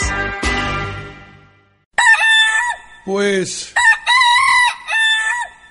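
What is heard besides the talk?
rooster crowing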